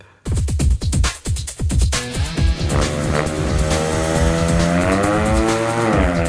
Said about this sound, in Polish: Dobra, to intro czołówka poleci i jedziemy dalej.